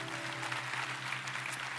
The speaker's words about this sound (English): In the spirit of uh, applause and appreciation, how about we give honor to the men and women serving in the military and first responders?